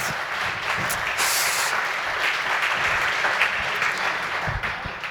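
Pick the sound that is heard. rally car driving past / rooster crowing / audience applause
audience applause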